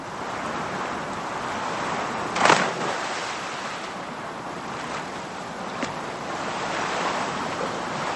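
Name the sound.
sea waves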